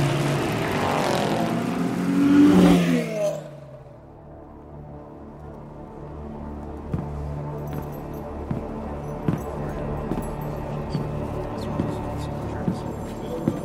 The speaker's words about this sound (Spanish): El abanderado alza ambos brazos y arrancan. Los autos se van enfilando a toda velocidad sobre la pista. El Habana Gran ha dado inicio, señoras y señores.